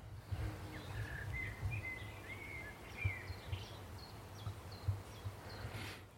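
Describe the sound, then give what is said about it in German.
Quiet forest ambience with a few scattered birds: soft chirps and short whistled calls drift in over a low, steady rumble, with no voices. “Das ist ein relativ ruhiger Ort in diesem Wald, an dem gar nicht so viele Vögel am Start sind und gar nicht so viele Schwebfliegen und was hier nicht so alles rumfliegt.”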